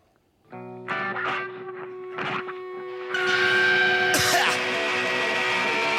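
A rock track from a new record released in 2019 plays, opening with sustained distorted guitar chords and swooping effect noises, then the full band crashes in halfway through, louder and denser, with heavy fuzzy guitars driving on.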